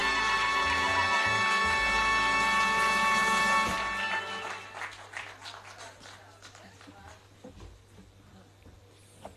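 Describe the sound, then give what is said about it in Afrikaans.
A song ends on a loud, sustained chord, then a crowd breaks into steady applause for the male singer that gradually thins out and fades over the next several seconds. “Ons gee hom nog 'n lekker aan klop.”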